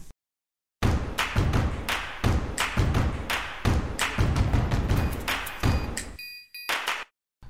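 A short, punchy intro jingle kicks in after a moment of silence, driven by loud rhythmic thumping beats, with a bright tonal flourish near the end before it cuts off. No one speaks.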